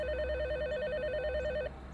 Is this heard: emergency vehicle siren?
no